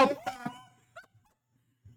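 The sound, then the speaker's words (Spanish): A short, wavering wail rises and holds for under a second, a voice imitating a police siren, followed by a couple of faint clicks and soft noises. “La sirena de la policía la que sonaba.”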